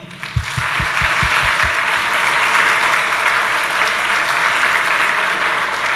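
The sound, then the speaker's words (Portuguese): A crowd applauds their mothers after a prayer, bursting into sustained applause, a steady dense wash of clapping that holds loud for several seconds, with a few low thumps at the start. “Aplauda sua mamãe.”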